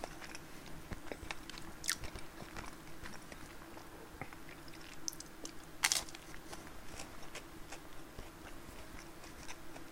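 Biting and chewing on bread during a lunch-break chat, with soft repeated mastication clicks and a couple of sharper crunchy bites standing out, no talking over it.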